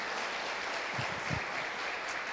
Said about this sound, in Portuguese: Você pode aplaudir a Ele, porque Ele é demais.